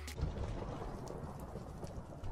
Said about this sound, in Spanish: ¿Qué ha pasado? Escucho fuego, no fastidie que se me quema la casa otra vez.